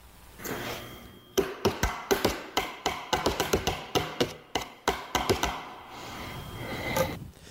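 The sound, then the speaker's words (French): Wooden spoons tapping on plastic cups in a quick, uneven run of about two dozen sharp clicks, badly recreating the Mario jingle, then a pause and one last tap. No one speaks. “qui recrée euh, très, euh, très, de manière très mauvaise le jingle de Mario euh, et, avec des verres en plastique et des cuillères de bois.”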